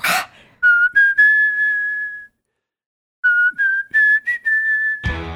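A clear, tuneful whistled melody, the opening of a rock ballad, played twice: a few short rising notes settling into one long held tone, a pause between phrases, no voices.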